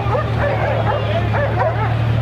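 A dog barks repeatedly in quick bursts during a training exercise, over a steady low hum, with some muffled voices mixed into the busy background.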